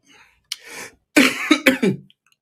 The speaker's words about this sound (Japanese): 咳がちょっとまだ出んだよな。薬飲んだんだけど。